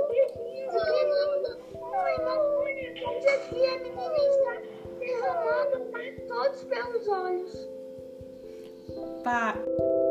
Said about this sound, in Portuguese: Ela está chorando, meu filho.